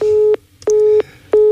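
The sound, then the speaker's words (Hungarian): A telephone busy tone after a dropped call: a steady low-pitched beep repeating in even on-off pulses, about three beeps, loud and alone with no voices. “Halló, halló, ez a telefon megszakadt.”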